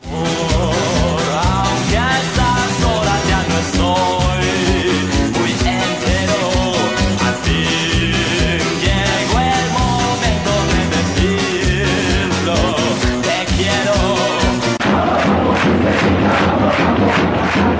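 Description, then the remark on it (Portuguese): A large crowd of Sevilla football supporters in a stadium sings a chant in support of their team, to the tune of a song that won Eurovision in 1968. The chant is loud and rhythmic with a steady beat, then dissolves into a broad roaring cheer near the end. “uma canção que venceu a Eurovision naquele ano de 68, a torcida do Sevilha usa para cantar em apoio ao seu time.”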